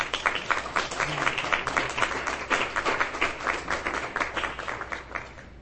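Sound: audience applause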